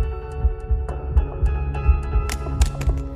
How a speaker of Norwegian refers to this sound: Han med det mørke håret sier dunkingen i brystet, den spente hjerterytmen.